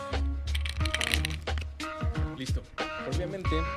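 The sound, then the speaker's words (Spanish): Ice cubes clatter and crack into a small glass, filling it for a cold drink, in a quick run of sharp hits, with a voice murmuring faintly underneath. “acomodado nuestro vasito lleno de hielos”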